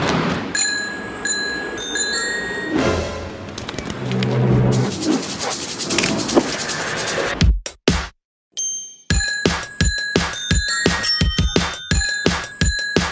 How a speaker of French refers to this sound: Que ce soit une sonnette de vélo ou une lame de scie agitée pour faire de l'air, ils sont jamais à court d'idées.